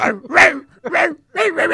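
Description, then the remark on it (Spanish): A person imitates a dog barking the Internationale, voicing a quick series of loud bark-like yelps in a rough, tune-like rhythm with brief gaps between them. “Podían ladrar la internacional.”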